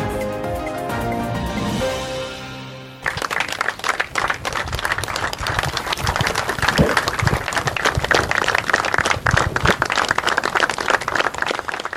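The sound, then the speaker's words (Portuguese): A brief musical sting with sustained tones fades out, then a large crowd of hundreds breaks into loud, steady applause, dense rapid clapping that continues unbroken to the end, at the burial of António Albino, president of Académico de Viseu, in São João de Lourosa. “Palmas, uma imensa salva de palmas foi esta tarde a sepultar António Albino.”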